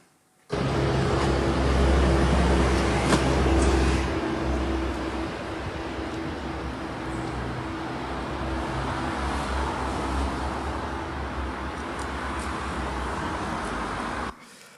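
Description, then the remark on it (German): Steady city street traffic noise on a downtown street in Zurich, Switzerland, a broad rumble of passing vehicles with a louder low engine drone early on, continuous throughout with no talking. “Und dann hat meine Frau das parkiert und um 5 Uhr haben sie es runtergetragen auf Downtown Zürich, auf der Straße. Ich habe es gefilmt.”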